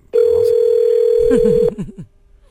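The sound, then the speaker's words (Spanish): A single steady ringback tone hums loudly over a phone line for about a second and a half, then cuts off as a man's voice starts talking; the caller is phoning a homeowner to ask about renting his house. “Mira, tenemos el teléfono a este vato. Vamos a decirle que le queremos rentar su casa.”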